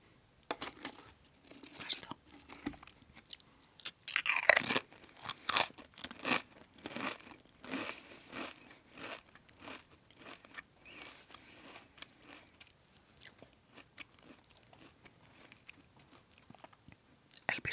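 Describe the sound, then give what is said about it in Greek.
Quiet crunching and chewing of potato chips, with crisp irregular crackles and a sharper bite burst early on, continuing steadily with no talking. “Μπορείτε να το βάλετε και το βράδυ να κοιμηθείτε με ήχο από πατατάκια που βρίσκομαι.”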